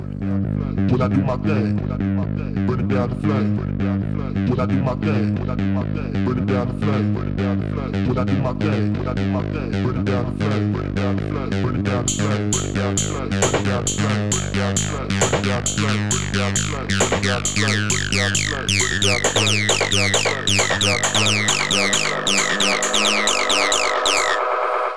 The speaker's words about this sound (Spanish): donde el joven productor de Cardiff nos muestra uno de sus mejores trabajos hasta la fecha, con una mezcla de house, techno y ácido pesado perfecto para la pista de baile.